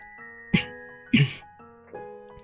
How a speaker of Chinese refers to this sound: 啊，对了，想到办法的他赶紧清了清嗓子。